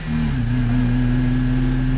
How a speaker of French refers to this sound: Dans un moteur essence ou diesel, donc, le bruit est principalement dû au principe de combustion.